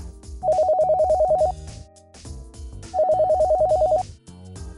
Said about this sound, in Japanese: おっと今度はお電話ですか